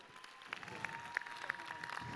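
An audience applauds: a steady patter of many overlapping hand claps, fairly soft and even throughout, with a few sharper claps popping out above the rest.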